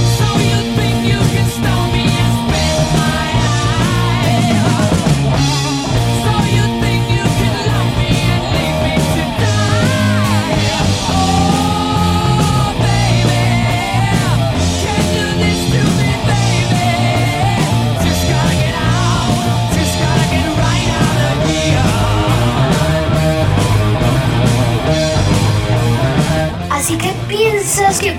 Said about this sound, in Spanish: ¿Y qué mejor que el rock fuerte para un reclamo?